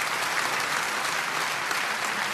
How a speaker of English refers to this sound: And let's clap for that, okay? Let's clap, saying agreement of that.